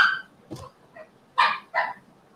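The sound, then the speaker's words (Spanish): A dog barks in a short irregular series, about five sharp yaps of varying strength, the last two loudest, with quiet gaps between them and no talking. “Dale los perros, ¿quién los quiere?”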